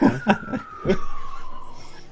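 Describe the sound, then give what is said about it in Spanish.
An ambulance siren passes outside in Santiago, Chile, its steady wailing tone sliding lower in pitch as it moves away, while brief bits of talk and laughter are heard at the start. “De repente hay incendio, hay ambulancias que pasan.”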